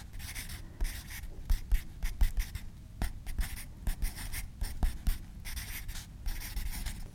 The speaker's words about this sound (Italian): suono della matita sul foglio o della penna ma forse la penna non saprei però